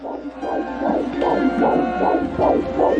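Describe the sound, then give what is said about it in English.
A nine-week-old fetus's heartbeat on a Doppler monitor: fast, steady whooshing pulses, about eight in three seconds, over a low background hum, with no one speaking. “That's a nine week old fetus's heartbeat.”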